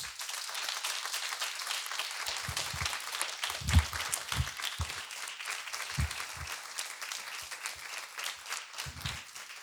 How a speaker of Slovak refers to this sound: podľa mňa ja sa zaslúži jeden potlesk.